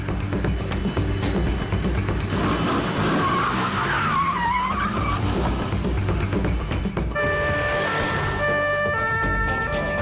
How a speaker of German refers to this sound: Zur gleichen Zeit erreicht der Streifenwagen der Polizei das Wohngebiet. Der rote Sportwagen fährt direkt auf die Beamten zu.